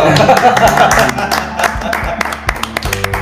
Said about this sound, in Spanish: ¡Viva el amor! ¡Aplauso!